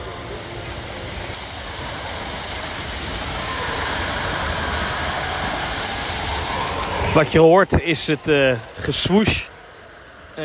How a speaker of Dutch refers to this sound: het gegil en de waterval van de Matterhorn bobsled. Ehm, ja, dat is eh, toch een bijzondere achtbaan. Een hartstikke oude achtbaan.